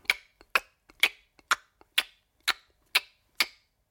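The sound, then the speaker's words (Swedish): Small clattering steps tap out a steady rhythm, about two per second, like a ticking clock, with fainter clicks in between, a little way off. Crisp and alone, with no voices. “Ja, det var ett litet slags klapprande ljud som också lät lite grann som en klocka.”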